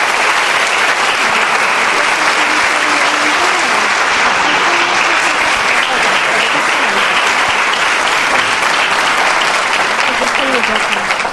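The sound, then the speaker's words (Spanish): Loud, sustained audience applause welcoming the keynote speaker at an event: a dense, steady wash of many hands clapping that holds at an even level for about eleven seconds, with faint murmuring voices underneath. “Por favor, recibamos con un fuerte aplauso a nuestro orador principal”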